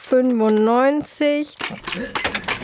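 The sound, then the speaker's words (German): A voice groans a long, falling mechanical whine, imitating a stuck machine, then a short burst of clattering clicks and rattles like a cash register drawer jamming. “Huh, meine, Klasse, äh, meine Kasse klemmt.”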